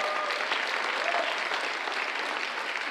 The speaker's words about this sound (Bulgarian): А, да, може да ръкопляскаме на Бога за истината на Божието Слово.